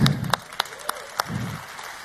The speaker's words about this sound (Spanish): Un aplauso para mi querido